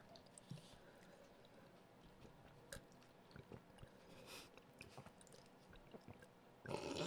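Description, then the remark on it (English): Someone quietly sips water, with soft wet mouth sounds, small clicks and swallows spread across a few seconds, then a brief louder burst of sound at the end. “Alright, I'm gonna take a sip of water.”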